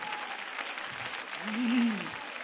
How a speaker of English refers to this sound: If you believe that, clap your hands. Come on, clap your hands.